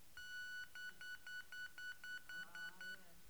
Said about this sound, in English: So our, ball beeps, our bases buzz